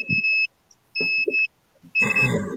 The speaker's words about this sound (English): And it sounds like the microwave going off.